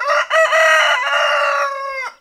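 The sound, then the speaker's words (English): A rooster crows once, loud, a bright cock-a-doodle-doo with a few short opening notes followed by a long sustained call that fades out at the end. “Did the chicken come first?”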